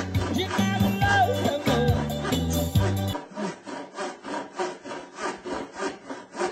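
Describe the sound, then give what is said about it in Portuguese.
A hand saw cuts through wood in steady back-and-forth strokes, a rhythmic rasping about twice a second, fairly loud, following a few seconds of louder tonal sound. “É, eu prefiro o som da serra, viu?”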